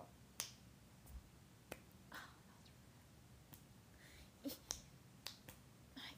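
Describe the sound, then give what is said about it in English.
A series of sharp right-hand finger snaps, about a dozen, spaced irregularly over several seconds, crisp against a quiet background with no talking. “okay, we're done with snappings.”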